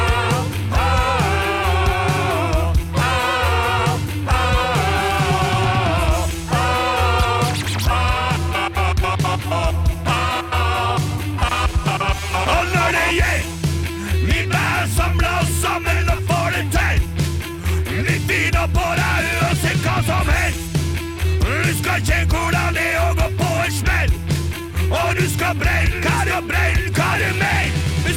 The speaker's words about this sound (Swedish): jag har valt ut ett av plattans 14 spår som jag tänkte slänga på nu.